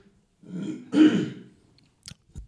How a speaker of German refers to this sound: ich, ich muss mal eben husten.